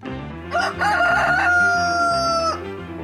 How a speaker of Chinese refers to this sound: 公鸡叫了第三次。